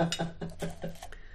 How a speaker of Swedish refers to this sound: Men du ska få dra en lapp innan dess. En lapp i den här burken? Ja, skaka först. Burken som du var och pillade på det första du gjorde nu.